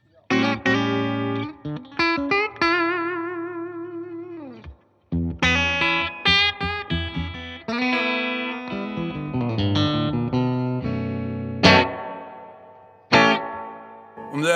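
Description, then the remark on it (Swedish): A Stratocaster electric guitar through a small, very clean class D amplifier with no distortion plays chords and singing single notes with wavering vibrato and a wash of reverb and effects, pausing briefly before continuing in a lively phrase, fairly loud. “det är stratta som ni hör.”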